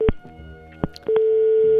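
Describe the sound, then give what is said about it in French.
A telephone line cuts off during a live broadcast call with a few sharp clicks, then a steady, loud electronic busy tone hums on, with no one talking. “Le téléphone vient de couper.”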